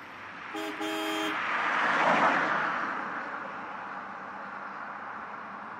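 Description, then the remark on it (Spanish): Street traffic rumbles steadily as a car sweeps past, its noise swelling and then fading. A short car horn honk sounds early on, and no one speaks. “El carrazo verde le tocó a ella y a mí me va a tocar ese camioncito destartalado que viene arrastrando su alma.”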